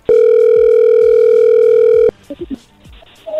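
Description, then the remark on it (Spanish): A telephone call rings through as one steady, loud electronic tone lasting about two seconds, then cuts off, followed by a few brief, quieter voice sounds. “A ver, ahí entró la llamada, no haga ruido.”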